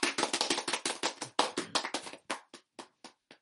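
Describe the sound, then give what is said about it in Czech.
Brief applause from a small group: a quick flurry of sharp, bright claps that thins into a few scattered, spaced-out claps before stopping. No one speaks. “A dostanu taky aplaus.”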